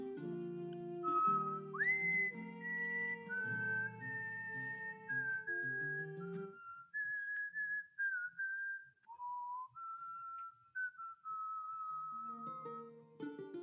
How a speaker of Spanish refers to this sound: ¿Quién está chiflando?